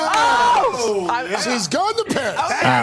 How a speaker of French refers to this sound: vous avez entendu l'exposition de joie des, présentateurs. Oui, elle va aller à Paris.